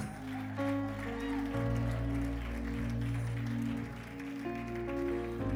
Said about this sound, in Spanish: Dele el aplauso a Dios.